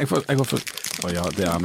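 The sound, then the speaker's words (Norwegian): A brief burst of paper crinkling as a wrapped gift, found on a desk at work, is unwrapped, sandwiched between bits of excited talking. “Ja, her er lyden av den, lyden av den pakken.”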